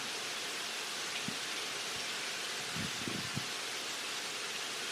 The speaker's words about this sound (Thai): ออกไปไม่ได้ ฝนตก